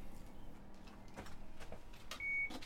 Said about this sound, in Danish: Og Hersted Vester er ikke et sted, hvor man bare går ind – der er mange låste døre. Jeg åbner.